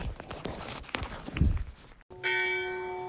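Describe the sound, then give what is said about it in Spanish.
Footsteps and scuffing sounds give way to a single loud church bell strike at nine o'clock in Villa Mayor de Monjardín, on a mountain. The bell's bright metallic tone rings out and sustains steadily after the hit, with no talking. “Ya son las nueve, Exacto, por eso hoy en la campana de la iglesia.”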